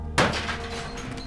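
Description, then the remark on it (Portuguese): A single loud, sharp crack of a hammer as a man strikes and smashes things in rage, followed by a noisy, rattling decay that lingers for about a second. No voices are heard. “E ele começa a bater nas coisas com o martelo, gritando de ódio e chorando.”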